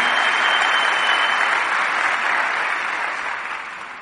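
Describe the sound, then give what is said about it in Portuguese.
An audience claps together for the Lord during a sermon in sustained, dense applause that stays loud and steady, then gradually tapers off toward the end, with no voices standing out above it. “Pode aplaudir o Senhor.”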